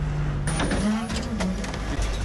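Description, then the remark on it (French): A garbage truck's engine idles with a steady, low, droning rumble. A brief airy hiss rises over it partway through. “C'est comment de monter à l'arrière d'un camion poubelle Non, franchement, c'est cool.”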